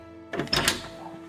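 A door creaks and opens with a short burst of clattering and rubbing, then a faint hum trails off. It is moderately loud, with no one speaking.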